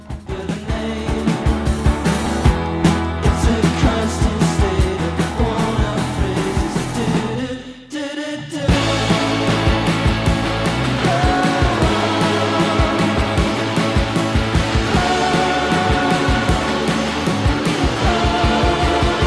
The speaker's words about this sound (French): On écoute tout de suite un des singles